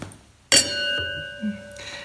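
Two wine glasses clink together once in a toast, clear, leaving a bright ringing tone that sustains and slowly fades over a quiet background with faint movement.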